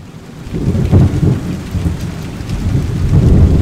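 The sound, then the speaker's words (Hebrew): A heavy downpour of the rains that caused huge floods in Mozambique on 9 February roars steadily with a deep, rumbling low end like thunder, swelling slightly toward the end; no voices are present. “גשמים עזים שיורדים ביבשת השחורה גורמים להצפות ענק במוזמביק, הגדולות והחמורות ביותר בחמישים השנים האחרונות, שקוטלות יותר מ-800 אנשים.”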